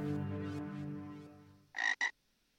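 A low, droning harmonic tone fades away, then spring peeper frogs give two short, shrill, high-pitched peeps in quick succession, loud and clear with no talking.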